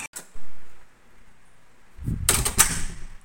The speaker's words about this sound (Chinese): 黑皮回过神来，一看到，在刚刚巨大的开门撞击下，